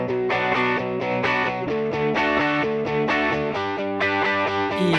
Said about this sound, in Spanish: Eh, bueno, vamos con, a meter primero la cortinilla de actualidad.